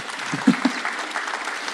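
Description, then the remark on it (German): A church audience breaks into applause, a dense steady wash of many hands clapping with a couple of sharper individual claps near the start, holding at an even moderate level throughout. “Yes, da dürfen die ruhig klatschen.”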